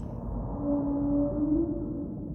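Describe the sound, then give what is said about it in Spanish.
A single low, drawn-out call from a whale of unknown species hums for about a second, with a faint higher overtone, rising slightly at its end, set against a steady rumbling underwater background with no voices, picked up by the US Navy's acoustic surveillance system and tracked by the Woods Hole Oceanographic Institution. “El doctor William Watkins llegó a la conclusión que aquel sonido no guardaba relación con otras especies de ballenas estudiadas.”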